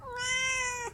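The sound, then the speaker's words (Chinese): A kitten gives one long, steady meow, high-pitched and clear, lasting nearly a second before dropping off abruptly at the end. No one speaks over it. “今天是只有小猫咪来陪我录节目。”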